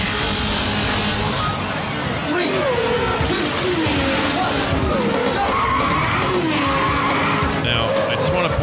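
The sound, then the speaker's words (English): Loud, continuous audio from Sega's 1992 3D arcade game Virtua Racing, with a droning engine and repeated squealing tire skids sweeping up and down, dense and busy throughout. “virtual Virtua Racing had some of the coolest sound work.”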